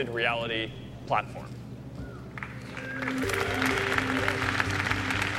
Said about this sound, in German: Das Publikum applaudiert und Zuckerberg lächelt.